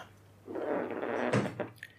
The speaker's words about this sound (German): Das ist kein Furz, das ist mein Stuhl. Ich rutsche ein bisschen, also nicht falsch verstehen.